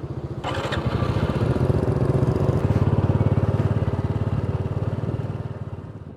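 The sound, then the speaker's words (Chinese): A motorcycle engine is started as its riders get ready to set off; after a brief pause it starts, then settles into a loud, steady, rapidly pulsing low rumble that carries on for several seconds before easing off at the end. No one speaks. “好的，我们准备出发喽！发动机车。”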